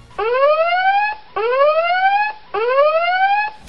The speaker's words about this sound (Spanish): Y no vamos a decir spoilers, sino por allá hasta el final va a sonar una alarma como esta.